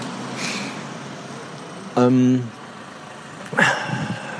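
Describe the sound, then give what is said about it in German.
Steady street traffic rumbles in front of a train station as cars and taxis drive in and out, with a faint swell early on; a man's voice briefly hesitates over the noise. “Ich hoffe gerade, es stören hier nicht so die Autos, die hier so vorbeifahren.”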